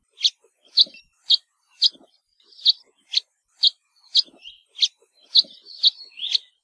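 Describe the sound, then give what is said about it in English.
A series of about a dozen short, nasal cheep calls from a house finch, repeated at a steady, slightly irregular pace, clear with no other sounds. “House Finch calls, on the other hand, are a rather nasally cheep and are given by both males and females when they're foraging to let each other know where they are.”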